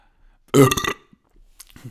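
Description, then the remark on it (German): A single loud, wet burp from a person who had drunk a lot beforehand, lasting about half a second with a gurgling low rumble, followed by quiet and a few faint rustling noises. “Entschuldigung. Soll ich das jetzt schneiden oder soll ich das drin lassen?”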